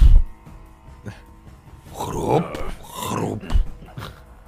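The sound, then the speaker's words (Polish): A creature with a stony shell and skin growls and snarls low while a few sharp crunching cracks punctuate the sound as river pebbles are crushed between its jaws; it stands by a column on the other side of a stream. “Słyszysz, no, jak w jego szczękach miażdżą i kruszą się te otoczaki”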